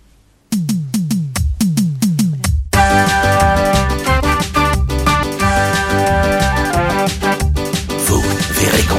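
An instrumental intro to a French children's song opens with a run of punchy, evenly spaced hits, then swells into a full, bright band arrangement with steady rhythm and sustained melodic tones, loud and upfront, no voices.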